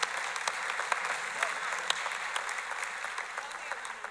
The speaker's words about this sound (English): Yeah, you clapping.